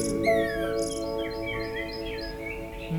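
Bright, whistling blackbird song of rising and falling chirps and sweeping notes rides over a steady droning hum with no voices.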